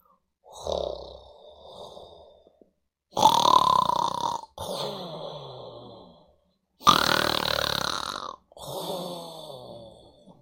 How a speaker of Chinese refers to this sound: 咕噜牛爸爸正在打呼噜，呼噜打得震天响。小妞妞听着爸爸的呼噜声，安心的睡着。